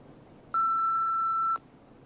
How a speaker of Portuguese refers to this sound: Deixa o recado após o bip.